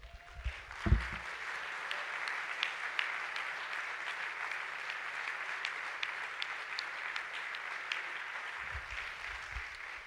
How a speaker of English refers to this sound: How many of you have never clapped hands and praised God? All of you? I don't believe you. okay, can we all clap hands? Put down your Bibles and can we just.